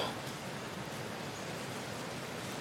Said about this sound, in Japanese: 雨すごいんですよ雨がすごくてさっきから雷と雨の音を聞きながらお話ししています僕ねあの雨と雷の音好きなんですよ